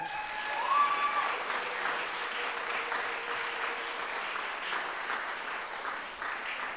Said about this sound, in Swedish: Vi ger alla en varm applåd.